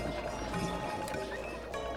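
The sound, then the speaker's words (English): Wintry, Christmas-like video game music with chiming bells and ice sounds plays steadily at a moderate level, sustained tones layered over a soft, busy background, with no one talking. “But we can enjoy this nice wintry music, right? It's sort of Christmas music.”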